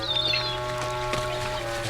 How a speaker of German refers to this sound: Und für die nächsten Minuten nahmen sie einander nur noch dadurch wahr, dass ab und zu ein Ast laut knackte oder ein paar Möwen kreischend aufflatterten.